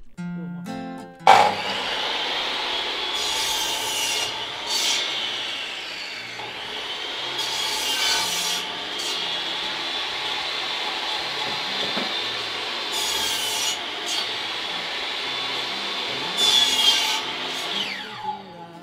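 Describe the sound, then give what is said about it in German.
A large hand saw cuts through wood in a home workshop, sawing posts and a lath for a frame, with a steady grinding rasp broken by sharper bursts every few seconds as the blade works through the post. “Papa muss als erstes mit der großen Säge die Pfosten und die Latte für das Gestell zurechtsägen.”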